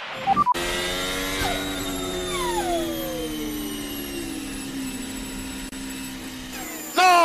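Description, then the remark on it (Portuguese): A race car's engine loses power, its loud whining drone sliding steadily downward in pitch for several seconds while a thin turbo whistle rings above it, then cuts off abruptly. “Nossa, é o barulho trauma, do carro sabe? foi muito bizarro. Foi tipo, deu um assovio.”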